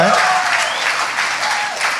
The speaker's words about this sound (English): Let's go. You clap for that. Clap for that.